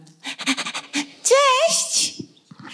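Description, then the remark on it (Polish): A dog pants in quick, rhythmic bursts, then lets out a short, rising high-pitched whine before its breathing trails off. “my mamy psy i uwaga, one wchodzą na scenę.”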